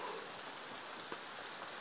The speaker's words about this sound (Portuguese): E a chuva não para.